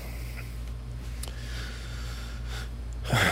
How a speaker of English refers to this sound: And also, Rainer, what are you doing? Rainer. She's sniffing around on these pots Kim has got going that are full of uh,